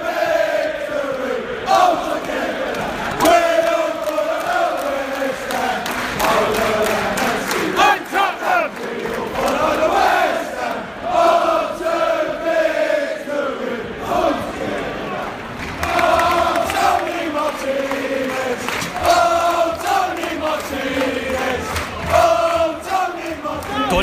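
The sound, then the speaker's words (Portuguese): A large crowd of football fans in a stadium at a West Ham versus Watford match chants in unison, a chant goalkeeper Joe Hart acknowledged by waving to them; a loud, sustained sing-song melody with rising and falling phrases repeating throughout, no single voice standing out. “O Joe Hart está pertinho da torcida, já até acenou para eles algumas vezes, reconhecendo esse canto.”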